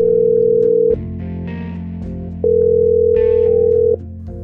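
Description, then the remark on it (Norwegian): A steady telephone ringback tone of an outgoing call to a state secretary at the Ministry of Climate and Environment sounds in two long bursts of about a second and a half each, separated by a pause, with soft background music running underneath throughout. “Jeg ringte statssekretær Christian Anton Smedshaug i Klima- og miljødepartementet for å få vite mer om situasjonen”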